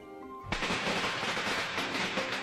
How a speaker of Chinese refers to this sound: 这天夜里，爆竹噼噼啪啪的响个不停。